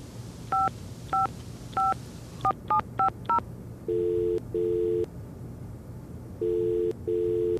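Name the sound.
telephone keypad dialing tones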